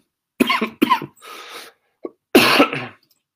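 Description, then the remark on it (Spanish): A burst of harsh coughing: two quick coughs, a wheezy breath, a small catch, then one more heavy cough trailing off. No speech. “no me hagas reír, Juan Salvador, porque me da tos”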